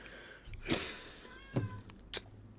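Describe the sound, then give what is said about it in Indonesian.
A cat in heat meows outdoors, giving three or so strained, drawn-out yowls spaced apart, faint against a quiet background with no one talking. “Oh, kucing lagi birahi noh, meong-meong aja.”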